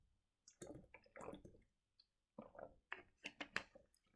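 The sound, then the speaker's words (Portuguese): Water poured with several irregular gurgling glugs and small splashes that come in short bursts and grow busier toward the end, with no talking. “Yeah, aguinha, né? O uh, glu glu.”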